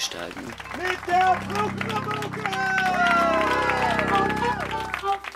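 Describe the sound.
Audience applause, a steady dense patter of many hands clapping, mixed with voices talking and crowd murmur throughout the few seconds.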